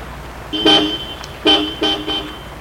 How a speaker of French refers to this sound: Elle entend klaxonner. Elle va vers la voiture.